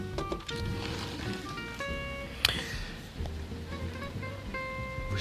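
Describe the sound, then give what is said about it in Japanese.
Steady rain hisses outside an open studio window, a dense, even wash of sound with a few faint tonal hums underneath and one brief sharp knock midway; no one speaks. “虫の音は聞こえませんかね虫はあんまり、えー、虫の音は聞こえませんが雨はかなり、えー、降っておりますね”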